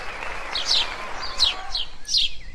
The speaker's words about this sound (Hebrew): אה, איזה יופי, ציפורים.